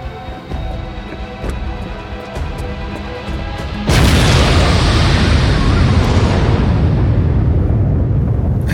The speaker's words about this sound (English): That's what I call an explosion, goddamn!